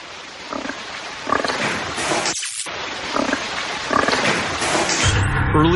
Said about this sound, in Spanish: capta un sonido escalofriante que a nosotros, y sé que esto parecerá una locura, nos recuerda a un cerdo gruñendo